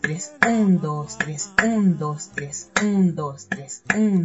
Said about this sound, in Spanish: Las claves como instrumento de percusión ejecutan el patrón rítmico de la clave. En la música cubana, y en particular, en todas sus variantes más tradicionales. El ritmo criolla, el instrumento clave, suena así.